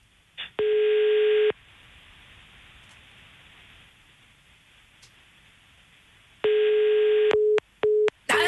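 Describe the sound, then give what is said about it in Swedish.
A telephone busy signal on a call placed from a hidden number: a loud, steady electronic tone sounds for about a second, pauses over a faint hiss, then returns in a longer burst followed by quick, choppy fragments as the line cuts off. “Nej, men han kanske satt i telefon.”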